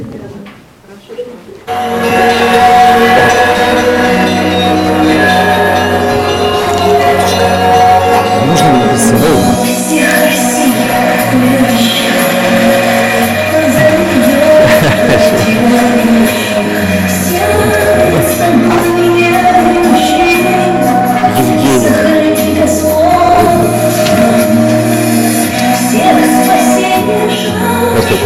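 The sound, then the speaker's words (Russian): A recorded song with ringing bell tones plays loudly and steadily after a brief quiet start, full sustained chords and what sounds like singing carried over a dense, chiming accompaniment. “вот эту песню включите, пожалуйста, с колоколами.”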